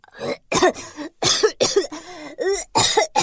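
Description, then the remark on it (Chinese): A voice acts out a loud, rasping coughing fit for the fire dragon character, whose throat burns from spicy food: about seven harsh, throaty coughs in quick, uneven bursts with brief gasps between them, and no other talking. “喷火龙的喉咙被辣得不停的咳嗽。”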